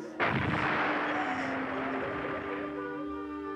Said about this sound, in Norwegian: Intense bombing and shelling continue.